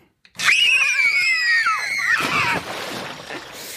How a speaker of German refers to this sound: Platsch, genau. Da war nämlich unsere Stadtreporterin und hat mal geguckt, wie die so in die Pfützen springen im Wald und auf den Straßen und äh, die haben darin richtig Spaß.